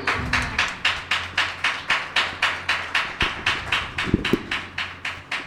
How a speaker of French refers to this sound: Merci mes soeurs. Faisons un petit applaudissement à notre Saint-Esprit merveilleux.